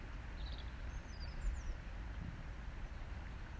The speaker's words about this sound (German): Ich sitze gerade an der Aare, an einem meiner Lieblingsplätze. Ich höre das Wasser plätschern.